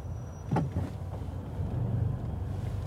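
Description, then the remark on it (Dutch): A car rumbles along the road, its low engine drone steady and swelling slightly, with a brief sharp knock near the start and no voices. “Even opletten op wielrenners en auto's.”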